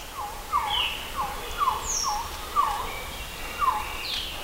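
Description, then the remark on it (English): A quetzal calls in a steady series of short, downward-slurring whistled notes, about two per second, moderately loud with no voices, plus a few fainter higher chirps in the background. “So I poured a quetzal, which is a bird usually found in the rainforest of Guatemala, and it sounds a little bit oh. like this.”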